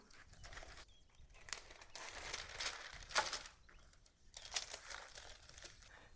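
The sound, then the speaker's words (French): Parchment paper crinkles and rustles in several uneven bursts, with a sharper crackle near the middle, as a sheet is laid on a baking tray and smoothed flat for a tart. No one speaks. “J'ai donc disposé mon papier sulfurisé.”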